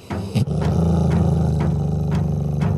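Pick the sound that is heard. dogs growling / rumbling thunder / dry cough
dogs growling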